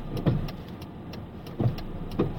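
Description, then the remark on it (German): Steady low rumble of a car's interior while driving, with a constant road-noise hum and a few soft thumps and clicks from the cabin, no one talking. “Kann ich mich schön auf Musik und Autofahren konzentrieren, aber quatschen.”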